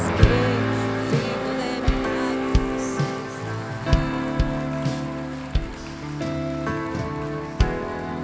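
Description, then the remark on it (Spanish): A crowd claps steadily in a dense, crackling wash, with sustained musical tones playing underneath and soft thumping beats recurring about once a second. “Dale un aplauso a”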